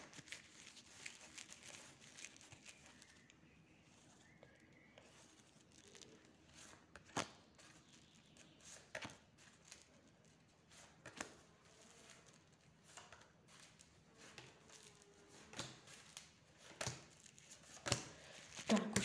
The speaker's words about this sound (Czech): Já už míchám karty, dívám se na vaše fotky a podíváme se, co nám teda karty řeknou.